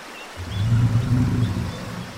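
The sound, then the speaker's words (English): A deep, rumbling saltwater crocodile growl from a croc in the water next to a canoe starts abruptly after a brief silence and holds steady for about two seconds, low-pitched and throaty with a slight rough pulsing texture. “Lauren, that's not a rock. That's a croc.”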